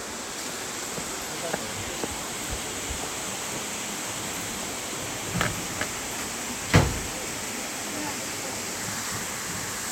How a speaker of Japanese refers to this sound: 滝の音です音取れてるかなこの音を聞きながら眠りたい